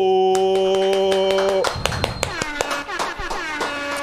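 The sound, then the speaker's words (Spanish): A steady held tone gives way to a burst of hand clapping, sharp uneven claps from a few people, mixed with voices talking over them. “Quiero que le demos un fuerte aplauso”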